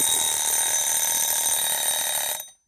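An alarm bell rings continuously for over two seconds, a loud, dense metallic clangor with a bright shimmering edge, then cuts off abruptly into silence. No one speaks over it.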